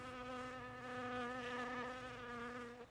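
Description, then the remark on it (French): A fly buzzes steadily for a few seconds, its droning whine holding a constant pitch with slight wavers, alone without any talking. “Une mouche bourdonne, pour proposer finalement une mouche bourdonne à ses oreilles, plus insistant.”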